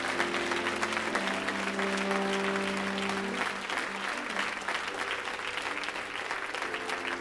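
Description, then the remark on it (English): A large audience at First Pentecostal Church in Palm Bay applauds with a hand clap of praise to the Lord, in a dense, steady roar of clapping, with sustained organ-like tones ringing underneath for the first half before fading, leaving only the continuous applause. “Let's give the Lord a great hand clap of praise this morning.”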